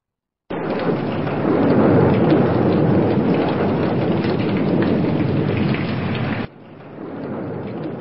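A sudden rainstorm with lightning and strong wind: large raindrops pour down in a dense, loud roar, with deep thunder rumbling underneath. It cuts in suddenly and later drops to a softer, steady downpour.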